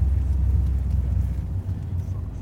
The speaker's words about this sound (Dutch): Het waait, hè? Het waait.